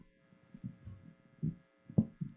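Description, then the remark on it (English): Dull, low thumps and bumps on a microphone as a speaker switches to another mic, irregular and uneven, with soft rumbling handling noise between them and one sharper knock near the end. “And I'm going to switch to this other mic because this is kind of echoey and I don't like it.”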